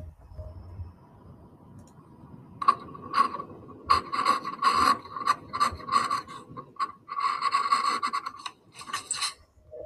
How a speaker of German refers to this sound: Oh, er schleift das sozusagen ab.